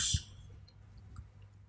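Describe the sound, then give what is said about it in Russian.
A small plastic pen being repaired gives a sharp click at the start, followed by a much fainter tap about a second later, with only quiet background otherwise and no talking. “я, я просто я тут э, ручку ремонтирую. Думаю, может вы Ты ручку, ручку услышали как-то.”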